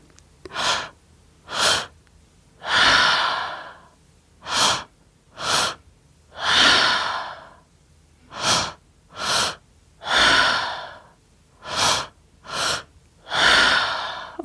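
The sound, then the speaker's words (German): Steady rhythmic breathing exercise, alternating sharp quick inhales with longer airy exhales, about a dozen breaths in a regular pattern that gradually speeds up, with no talking. “etwas schneller. Und weiteratmen.”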